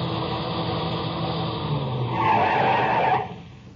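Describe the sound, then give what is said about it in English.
A car roars in over the rise of a rough road at night with its headlights on, its engine noise swelling, then tires screech in a loud skid that cuts off abruptly near the end. “I heard the whine of a car coming over the rise in the rough road as the first glimmer of the headlights stabbed the darkness.”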